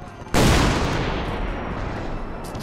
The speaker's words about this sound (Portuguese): O tiro do canhão acabou arrebentando grande parte do convés. Tinha madeira e destroços para todo lado.